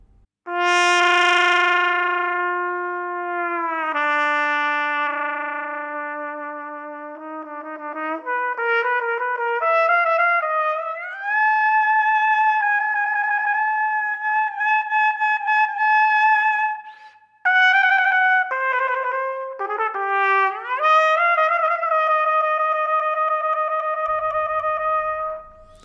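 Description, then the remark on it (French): A brass instrument played with a Purdy mute holds long, loud, buzzy notes that step up and down in pitch, with some effect-like processing and no talking over it: the beginning of the second version of One Shot by Benoît Menut. “Écoutons donc euh, le début de la deuxième version, donc avec euh, Purdy Mute de One Shot de Benoît Minute.”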